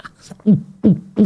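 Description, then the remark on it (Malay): A voice imitates gulping, three quick throaty "gluk" sounds in a steady rhythm, fairly loud, like someone swallowing a drink in big gulps when breaking the fast. “Kau mancing cakap gluk-gluk tu bila saya buka puasa bunyi macam minum macam tu kan sebab siang kerja banyak peluh.”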